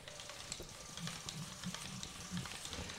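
A small cardboard toy fishing reel being cranked, making a continuous scratchy, crackling rattle with soft low thumps recurring about every half second to second, steady in loudness for three seconds with no voices.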